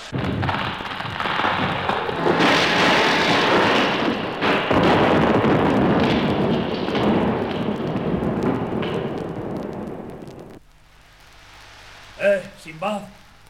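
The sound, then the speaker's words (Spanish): A ship breaks apart against the rocks below cliffs on the coast called the Costa de la Muerte in a storm: a loud, sustained roar of crashing, booming impacts and churning noise for about ten seconds, then it cuts away to quiet, with a voice briefly speaking. “La nave estalló a pedazos y fuimos arrojados contra las rocas.”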